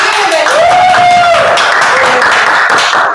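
An audience breaks into loud, steady applause lasting about three seconds, with a rising, sustained whoop or whistle over the dense clapping early on.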